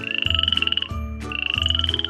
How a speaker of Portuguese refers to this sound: A rã, quando a noite baixa, que faz ela toda hora dentre os limos em que mora? Coacha.